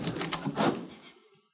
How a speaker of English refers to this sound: Uh, front door, huh? No, look, stay away from that door, Dad. Don't open it. Please don't.